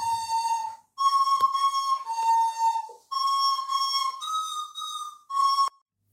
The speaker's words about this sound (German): Ganz klassisch mit der vermeintlichen Blockflöte des Grauens.